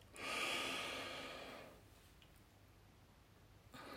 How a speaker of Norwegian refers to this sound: Klar for runde to, kapalbati. Pust inn. Pust ut. Innpust.